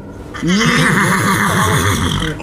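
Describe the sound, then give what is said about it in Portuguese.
A horse neighs loudly, a long whinny with a rising start and a rapidly wavering, trembling tail lasting about two seconds. “Vocês saem daquele lugar e tem um cavalo branco.”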